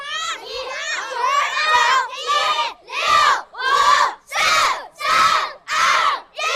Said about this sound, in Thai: เสียงที่ได้ยินไปเมื่อสักครู่เป็นเสียงบรรยากาศจากค่ายลูกผู้ชายใช่ไหมอ่า